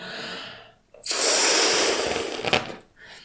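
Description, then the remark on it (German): A soft intake of breath, then a long, steady, forceful exhale of rushing air lasting about two seconds, blowing up a small yellow balloon, with a brief quieter breath afterward. No one speaks. “Und während du aufpustest, pustest du all deinen Ärger, so wie du es in der Meditation machst, in die goldene Kugel rein pustest es in den Luftballon rein und alles rauspusten in den Luftballon rein.”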